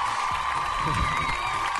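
Steady crowd applause and cheering, a dense wash of clapping with scattered whoops, holding at an even, moderate level for its full length, with murmured voices mixed in.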